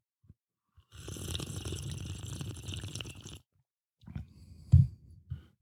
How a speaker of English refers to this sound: You wanted to hear the chair being adjusted. Compelling podcast material.